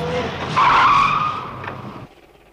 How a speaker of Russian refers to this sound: К подъезду подкатила большая черная машина.